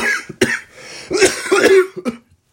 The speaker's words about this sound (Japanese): えー、開始早々っていうね、咳込むっていう、えー、プロ意識のかけらもない、あのー、ラジオトークでございますけども